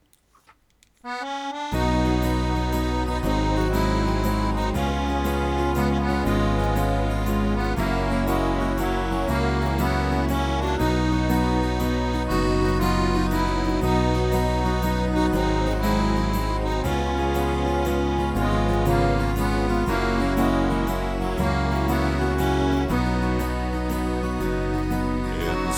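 After a moment of near silence, a recorded gospel song sung by a duet starts and plays steadily and fairly loudly, with a full, rhythmic accompaniment throughout.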